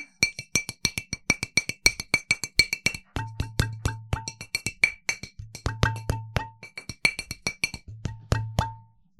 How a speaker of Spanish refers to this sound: Las botellas pueden ser tocadas de muchas maneras, también así. ¿no? Sí. Ah, o así. ¿Viste todos los sonidos que podemos hacer?